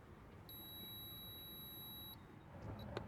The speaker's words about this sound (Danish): Okay, hold da ring på. De bor det er sådan en stor, stor lejlighed, så det kan være, at der lige er lidt fra man hører ringet, til man skal gå hen for at åbne.